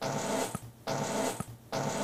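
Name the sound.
fart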